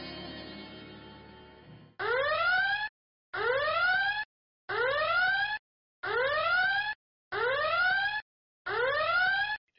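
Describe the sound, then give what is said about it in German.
A siren sound effect marking a spoiler warning wails in six rising bursts, each sweeping upward in pitch and cutting off sharply with brief silent gaps, loud, after a short noisy lead-in. “Genau, und ich werde eine zeigen, dicke Spoilerwarnung mit Sirenen in diesen Podcast müssen. einfügen, dass die Leute dann also, zehn Minuten überspringen können, wenn sie wollen.”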